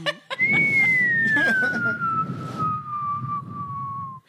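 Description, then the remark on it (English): A loud, steady whistle slides slowly downward in pitch for about four seconds, the classic falling-bomb effect, with muffled chatter and laughter rumbling underneath. “I tried to get that bomb dropping sound, but they're all too long.”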